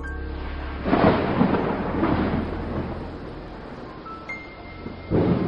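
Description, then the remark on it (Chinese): Low, rolling thunder rumbles at night over a city through steady heavy rain striking hard ground, swelling at about one second, fading slowly, then a fresh loud rumble breaks in at the end. No voices. “整座城市浸泡在黑色的液体当中，天上的乌云中好似躲藏着一只幻兽，时不时的传来愤怒的嚎叫声，震肿的大地的神经。”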